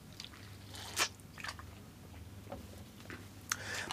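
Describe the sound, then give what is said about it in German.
Quiet wet mouth sounds of someone eating a liquid sports gel: a few soft squishy smacks and clicks at irregular moments, with a low steady hum underneath and no talking. “Wie üblich sehr süß und das Erstaunliche ist ja bei diesen ähm, Sportgels äh, und diesen Flüssiggels, dass die viel besser schmecken, wenn man also eine sportliche Aktivität hinter sich hat.”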